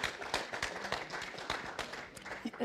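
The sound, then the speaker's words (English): An audience applauds steadily for a few seconds, many hands clapping in a dense, crackling patter with a few sharper claps standing out, at a fairly soft level. “There, that deserves an applause.”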